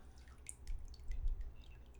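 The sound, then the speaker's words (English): Water dripping in a few soft, irregular plinks, fairly quiet, over a low steady rumble of background noise, with no one talking. “Do you hear one. the water?”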